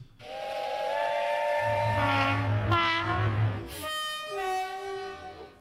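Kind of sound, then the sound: sound effect, train horn sound effect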